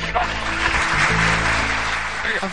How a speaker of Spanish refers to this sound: Aplausos nuevamente.